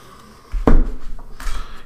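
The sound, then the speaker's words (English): A deck of tarot cards being shuffled: a sharp papery burst followed a moment later by a softer, rustling riffle, with no talking. “I'm getting better. I was at shuffling.”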